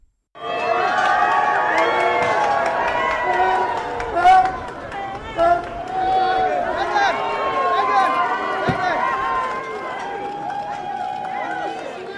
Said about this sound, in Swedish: Och det är ju spännande det här med liksom Harry och Meghan och när de gör entré till olika saker. Eh, det är många som jublar, men det är också några som buar och vi lyssnar på hur det lät då när de gjorde entré till Invictus Games.